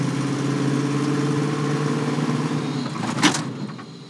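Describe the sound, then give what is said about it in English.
An early Bronco with a metal-box body and soft suspension drones steadily from inside the moving vehicle, a low, loud, even hum, broken near the end by a single sharp rattling clunk as it rolls over a speed bump. “like even though it's loud. I mean, it's a metal box, but it's still soft.”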